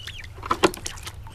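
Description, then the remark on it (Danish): Chickens bought unsorted, broilers together with some hens, cluck in a few short, sharp bursts, two louder calls standing out over a steady low background hum, with no one talking. “Og så har vi slagtkyllinger, og så samtidig nogle hønker. Det afløser de gamle høns.”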